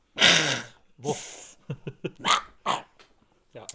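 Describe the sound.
A voice imitates a cat coughing up a hairball: a long, harsh, raspy gag and a breathy hiss, then several short, choppy retching hacks, fairly loud with no other talk.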